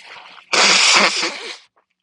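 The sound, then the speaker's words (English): A person blows their nose in one loud, harsh burst lasting about a second, preceded by a brief softer sniff-like rush of air, then silence. No one speaks. “Blow my nose again”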